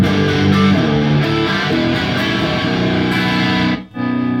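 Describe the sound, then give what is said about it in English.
A loud, heavily distorted electric guitar plays a short riff from after a song's post-chorus, sustained, shifting notes with no voices, cutting out briefly near the end before a chord rings again. “So here's the here's the after the post chorus is such a cool little riff.”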